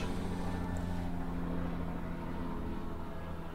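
A helicopter drones overhead, a steady low engine rumble with a faint tonal hum that holds at an even, moderate level throughout, with no voices.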